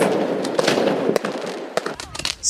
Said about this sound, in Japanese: 本来禁止されているエリアなんですけれども、新年を祝おうとですね、先ほどから花火が至るところで打ち上がっています。